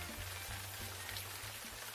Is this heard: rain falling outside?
yes